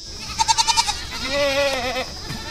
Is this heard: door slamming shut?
no